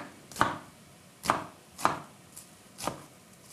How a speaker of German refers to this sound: Und das tun wir jetzt einfach würfeln. Also ich tue parallel zum, zum Brett einmal einschneiden, ein zweites Mal. Dann die Länge nach von oben runter.